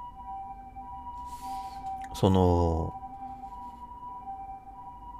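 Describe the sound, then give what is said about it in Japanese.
An ambulance siren from an ambulance driving nearby sounds steadily in the background throughout, fairly faint and continuous, while a person briefly speaks a single word partway through. “今ピーポーピーポーって聞こえるかな 近くでなんかすごい救急車が走ってる”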